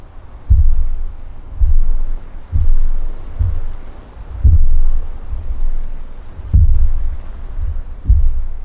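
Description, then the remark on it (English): Deep, heavy thumps of geothermal gas bursting underwater in Black Sand Pool, Yellowstone National Park, repeat roughly once a second, each followed by a rushing, hissing surge of bubbles breaking the surface, loud with no voices. “The thumps are followed by a rush of bubbles on the surface of the pool.”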